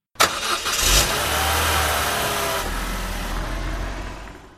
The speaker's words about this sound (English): No problem, says the rabbi. He gets in his car, starts driving,